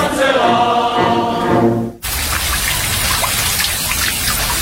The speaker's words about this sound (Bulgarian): Нашите ръчни душове освежават и тонизират за целия ден с економичен разход на вода от 6 литра в минута и функции дъжд, тропически дъжд, масаж, джет, шампанско цялата баня.